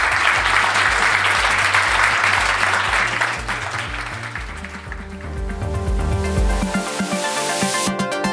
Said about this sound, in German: Vielen Dank dafür erstmal euch selbst und auch an die Speaker einen fetten Applaus